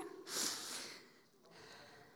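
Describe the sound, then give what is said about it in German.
A short, forceful nose blow: one loud, hissy burst of air lasting under a second, trailing off into quieter breathy noise with no talking. “Wir machen heute alles mal ein bisschen, dann kann ich noch mal Nase putzen.”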